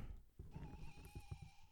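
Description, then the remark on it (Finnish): A plush snowy owl chick toy, labelled Vivantti, Ylöjärvi, Finland, gives its call from a mechanism inside, imitating an owl chick: a thin, steady electronic tone held for about a second, sounding a bit like a tiny pony's whinny, over soft handling thumps. “Äiti oli ostanut Liminganlahden luontokeskukselta kolme tämmöistä pehmo tunturipöllön poikasta, joissa on sisällä mekanismia ne ääntelee.”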